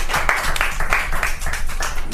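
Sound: audience clapping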